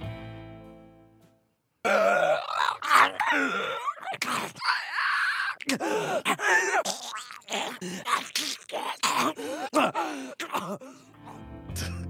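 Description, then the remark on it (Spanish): A voice imitates a fungus-infected creature with a fungus sprouting from its head, making harsh, gurgling groans and throaty growls in ragged bursts for about ten seconds after a brief quiet start. The sound is loud and unaccompanied. “Así es, y tienes ya, en esta etapa ya tienes como un hongo que te está brotando de la cabeza y, y se escuchan así.”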